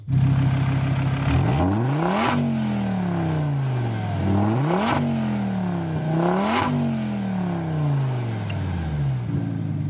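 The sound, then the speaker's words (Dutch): A Donkervoort sports car engine roars as it accelerates hard, its pitch climbing through several gears with sharp drops and crackling bursts at each shift. Loud and continuous, with no talking. “Dat is toch, toch het geluid. Ik heb nog een stukje.”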